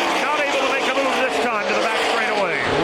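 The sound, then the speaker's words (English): Loud stock car engines roar continuously as cars race past on an oval track, their high whining pitch rising and falling in overlapping sweeps as several vehicles close in and pull away, with a voice talking over them. Two cars break away at the front, Kevin Harvick right on the back bumper of Ryan Newman's Alltel Ford. “Two man breakaway at the front of the pack.”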